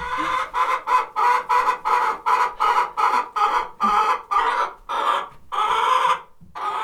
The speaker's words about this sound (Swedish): Vi flyttade oss och så började vi om för att det var så mycket ljud. Ett jävla liv rent ut sagt i ja. mitt hönshus idag.